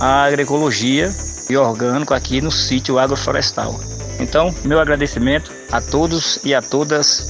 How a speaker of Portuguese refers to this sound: a gente escuta o ruído das cigarras ao fundo.